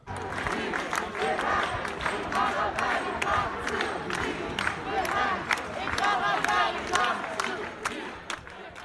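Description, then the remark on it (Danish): A large outdoor crowd at a peaceful climate demonstration chants and shouts together in a steady, rhythmic mass of voices, with sharp claps or drum hits punctuating the loud din throughout. “jeg tænker måske, du lige kan, kan give mig lidt lyd fra en, øh, en fredelig klimademonstration.”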